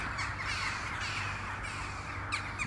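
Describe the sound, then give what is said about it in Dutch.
A large flock of big black crows flying across the sky above a hotel parking lot caws continuously, many harsh overlapping calls blending into a dense, raucous chorus with a few louder caws standing out, recorded outdoors on a phone with no talking. “Aan de hemel vliegt een indrukwekkende zwerm dikke zwarte kraaien voorbij.”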